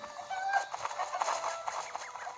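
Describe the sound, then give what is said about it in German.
A chicken clucks in a quick series of short, nasal bursts, fairly loud, with a steady background hiss and no talking. “Darf ich das Huhn nehmen? Kann ich jetzt damit fliegen?”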